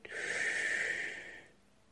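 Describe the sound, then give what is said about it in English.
A single long, slow, deep belly breath drawn in, the belly moving out, a steady airy rush lasting about a second and a half before trailing off into quiet. “And take six deep, slow breath like that.”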